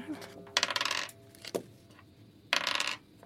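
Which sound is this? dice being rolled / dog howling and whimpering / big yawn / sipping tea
dice being rolled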